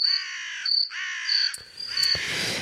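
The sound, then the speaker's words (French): A crow caws loudly at close range, three or four harsh, raspy calls in quick succession with no pauses between, the last ones rougher and noisier. No one is talking. “Si tu avais un petit bruitage de corbeau, ça me, ça m'irait très très bien.”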